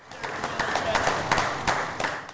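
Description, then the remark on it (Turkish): Many people clap together in support of health workers, with Boris Johnson applauding outside the prime minister's residence, in a steady, crackling wash of applause, with sharper individual claps standing out roughly every half second and indistinct voices mixed underneath. “Johnson basın toplantısından sonra başbakanlık konutundan çıktı, sağlık çalışanlarını alkışlayarak destek verdi.”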